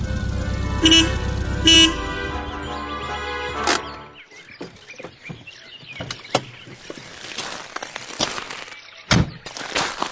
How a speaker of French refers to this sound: Pardonnez-moi, professeur, mais il est tout à fait évident que nous entendons là une voiture et que quelqu'un arrive à la campagne.